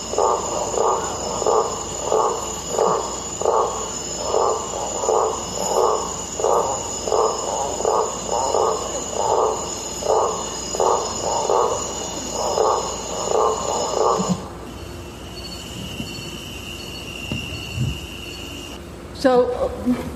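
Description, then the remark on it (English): A morning chorus of forest creatures: rhythmic, evenly spaced chirping calls over a steady high-pitched insect drone, running for about fourteen seconds before dropping to a quieter outdoor hum. “most of the people that live there, they grow up, they can tell the time just by the different sounds of, the, of all the different creatures.”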